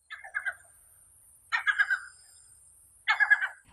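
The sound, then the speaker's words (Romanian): Yellow-legged gull calls ring out in three evenly spaced bursts, each a quick run of harsh, nasal notes, clear against a quiet background with no voices. “Pescărușul cu picioare galbene este sedentar, prezent tot timpul anului, dar păsările tinere pot hoinări la distanțe mari față de locurile de cuibărire.”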